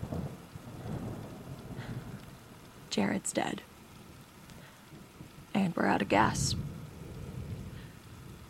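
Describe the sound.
Steady, heavy rain pours down throughout, with low rumbling thunder beneath it; a person speaks briefly twice over the downpour.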